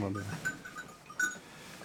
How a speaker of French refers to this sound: comme j'en ai pas beaucoup, ben, je me paye le luxe de mettre euh, une cloche par brebis. Elles ont toutes des cloches. Alors théoriquement, on les enlève quand on les rentre en bergerie. Mais, j'aime bien, euh, j'aime bien ce bruit dans la bergerie,